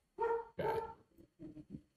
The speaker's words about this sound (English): Dog is very upset about something.